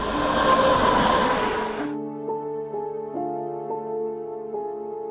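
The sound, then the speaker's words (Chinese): A loud, roaring rush of a passing train on a railway about three kilometres from a ruin fills the first two seconds, then cuts off abruptly into steady, layered sustained tones that shift in pitch step by step. “推测距离赢得废墟三公里的铁路，很有可能就是造成房屋每晚震动的原因。”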